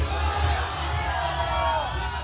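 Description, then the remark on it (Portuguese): A crowd of artists chanting at a peaceful demonstration on the red carpet, many voices merging into a dense, steady roar of shouting that holds at an even, fairly loud level throughout. “Nós estamos ao vivo, UX FM, direto do tapete vermelho, rua coberta, nesse momento em que os artistas fazem essa manifestação pacífica.”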